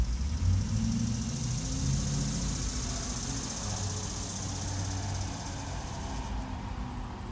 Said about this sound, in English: I'm taking breaks because cars are passing by